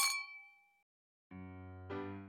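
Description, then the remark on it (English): A single bright clink of glasses in a toast, its ringing tone fading over most of a second, followed by a short silence and then a sustained musical tone starting up. “also a second cheers to sneaky, sneaky Orson Welles”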